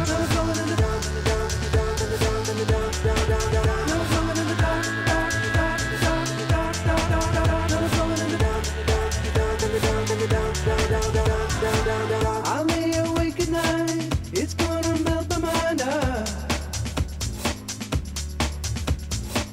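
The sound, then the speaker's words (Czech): A brand-new, not yet officially released, very danceable song by a band of young men from London plays loud and steady, with a driving beat, bass and layered guitars or synths; the arrangement shifts partway through. No one speaks over it. “já vám sem pustím teďka jeden hudební typ”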